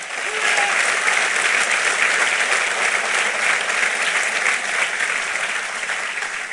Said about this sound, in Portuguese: Pode aplaudir a ele.